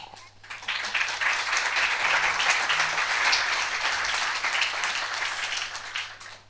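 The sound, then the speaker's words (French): An audience applauds the name of Aragon after his poem is recited during an evening event: a dense, steady wash of many hands clapping that holds for about six seconds before tapering off, with no voices heard. “Je n'imaginais pas que dans cette soirée, on puisse faire applaudir le nom d'Aragon.”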